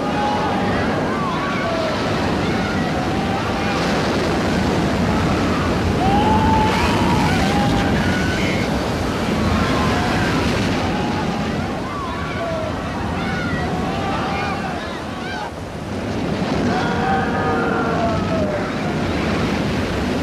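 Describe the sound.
A loud, continuous roar of the crashing Red Sea waves closing over people surges throughout, dense, with indistinct human voices crying out beneath the churning water.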